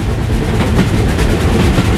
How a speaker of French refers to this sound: Je me souviens de mes nuits dans les trains, seul dans le noir, dans un compartiment. Et surtout, il y avait le bruit des roues sur les rails, avec lequel je m'endormais et je me réveillais.